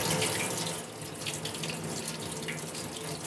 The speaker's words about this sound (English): Right now, now he's uh, hosing it down and just stopping the exposure, stopping the development, I should say and he's uh, directing some of the water specifically onto certain parts of the image just to help to uh, balance the exposure there.